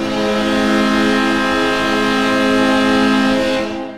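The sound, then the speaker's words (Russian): A loud, sustained New York Islanders goal horn blares steadily in celebration for about four seconds, rich and brassy with many stacked tones, then cuts off abruptly at the end. No voices are heard. “Это звук хоккейного ликования Нью-Йорк Айлендерс.”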